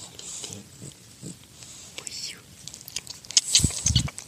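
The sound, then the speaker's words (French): Rough, low snoring snorts come in short bursts, a few soft ones early and a louder, throaty pair at the end, with faint whispery sounds in between. “t'as bien ronflé aussi, hein. Donc t'arrêtes de ronfler, c'est chiant.”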